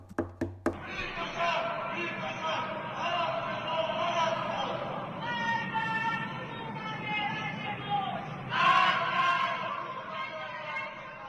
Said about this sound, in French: Je tuerai celui qui a tué ma sœur, mort à ce régime tueur d'enfants. Ce sont les cris des Iraniens qu'on entend à Téhéran ce samedi 28 octobre au soir.